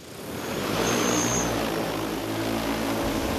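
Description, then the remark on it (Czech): An agricultural spraying drone flies by itself along a pre-planned route, watched by a pilot, with a steady, loud whirring roar of its rotors, a broad rushing hiss layered over low droning hum tones that hold constant throughout, with no voices. “Stroj letí sám podle předem naplánované trasy.”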